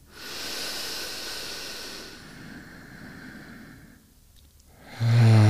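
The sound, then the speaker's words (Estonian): A slow, deep breath drawn in through the nose from the lower belly with an airy hiss, then a long exhale through the mouth that tapers off into quiet before a louder sound breaks in at the end. Fairly soft, no talking. “ja alusta siis äh, niisugust äh, sügavat hingamist, hakka all, alakõhust tulema, hinga ninaga sisse ja suuga välja.”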